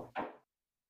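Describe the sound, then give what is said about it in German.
One dull, muffled knock on a door, fairly faint and short, fading quickly into silence with no voices around it. “Ich glaube, da hat's geklopft.”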